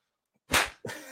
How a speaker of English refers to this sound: that slap. that slap crazy as hell.